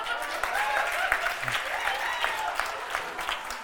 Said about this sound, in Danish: Vi klapper her, man kan ikke høre det ellers, men ja.